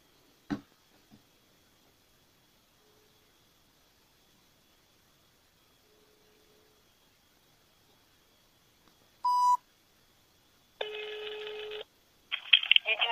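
signal or alarm, telephone ringing tone

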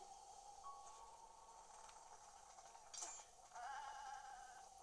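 animal, goat bleating

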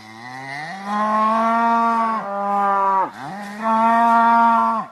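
animal, cow mooing

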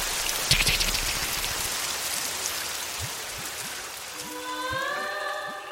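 nature, rain falling

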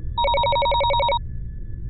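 signal or alarm, phone ringing

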